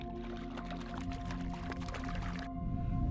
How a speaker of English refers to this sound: Uh, it's the only water source within seven miles in each direction. And uh, it's a hand pump water well that never dries up. Uh, people that bring their livestock there, they hand pump the, the water troughs full of water.